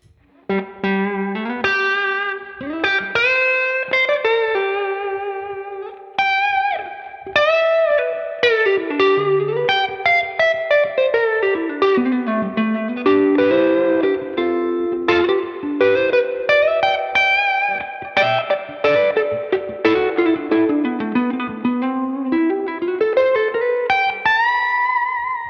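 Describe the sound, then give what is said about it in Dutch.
An overdriven Stratocaster electric guitar plays a lively, fluid lead line with sustained bends and quick runs, sounding bright and gritty with a touch of reverb, and nobody talks over it. “ja, dit is een Strat, weet je. Mooi man, klinkt goed.”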